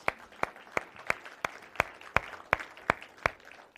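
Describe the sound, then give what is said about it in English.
A church audience applauds a young married couple during a service, with a wash of clapping underneath and a steady, sharp clap cutting through about three times a second. There is no talking. “Let's give it up for them, guys.”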